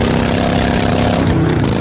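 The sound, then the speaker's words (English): A motorcycle engine runs steadily, a loud, continuous rumble with a buzzing hum that holds even throughout the short stretch, with no talking. “And this is how that same commercial sounds on your motorcycle.”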